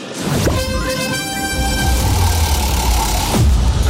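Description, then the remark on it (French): A radio contest alert sounds: a loud, sustained horn-like blast lasting about three seconds over a rumbling, noisy background, with no talking. “Dès que vous entendez cette alerte, vous prenez votre téléphone et vous vous inscrivez”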